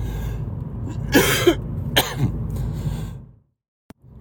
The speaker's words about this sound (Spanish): Estoy con la tos puñetera.